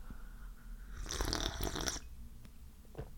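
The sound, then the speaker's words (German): A noisy slurp of hot coffee lasts about a second, a single airy sip drawn in loudly with no talking around it, followed by a few faint mouth sounds. “Sekunde, ich nehme mal kurz einen Schluck von meinem Schlaui-Saft.”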